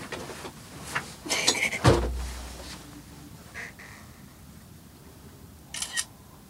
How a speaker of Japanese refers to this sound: これ今今写真撮ってますけど